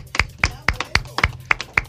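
Applause from what sounds like one person: about seven sharp claps in a steady, quick rhythm, with no voices, opening a show.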